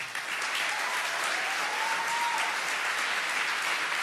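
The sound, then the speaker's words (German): Steady, dense applause from an audience at a church service as a woman is called up to speak, a continuous wash of many hands clapping at even loudness throughout, with a faint whistle-like tone rising briefly in the middle. “komm hoch, lass uns ihr Applaus geben.”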